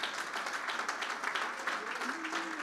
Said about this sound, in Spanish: Por lo tanto, si quieren dar un aplauso, Señor, denle un fuerte aplauso.